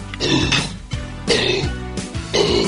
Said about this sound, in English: oh, he's just yakking on a bone. we got it up.